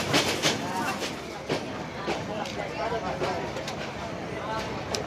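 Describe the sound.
A moving train rumbles steadily, its wheels clacking and rattling over the tracks in uneven bursts, with indistinct voices murmuring faintly beneath the constant carriage noise.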